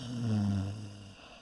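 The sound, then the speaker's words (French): A single loud, drawn-out snore with a low, throaty rumble that swells and then fades away, heard on its own with no talking. “Mais comme c'est bizarre, se dit le chasseur étonné, comme cette vieille femme ronfle fort, je vais aller voir si tout va bien.”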